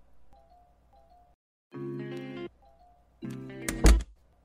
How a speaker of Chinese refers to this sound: 将事务所的门关上后